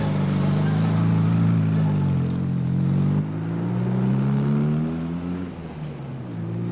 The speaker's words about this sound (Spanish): Lucía se marcha sonriente y Hans arranca el vehículo.